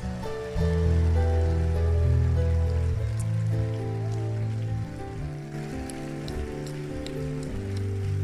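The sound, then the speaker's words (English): An audience claps steadily in praise of Jesus in a dense, rain-like wash of applause, with sustained organ or keyboard chords held underneath throughout. “Give the Lord a mighty and global praise. Come on, clap for Jesus.”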